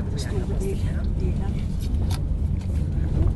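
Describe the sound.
A car engine rumbles steadily as the vehicle sets off and shifts gears, a deep continuous drone with a few faint clicks and shifts in pitch, muffled voices murmuring inside.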